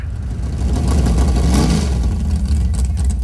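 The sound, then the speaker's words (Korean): A loud, rumbling engine of a 1957 Chevrolet, converted into a race car with a large-displacement engine fitted in the front, revs up, its deep growl swelling around the middle and holding steady and strong, with no talking over it. “57년산 쉐보레라는 구형 모델을 인터넷에서 찾아 8,000달러로 주고 구입했고 차 앞쪽에 대배기량 엔진을 얹어 경주차로 개조했다고 합니다”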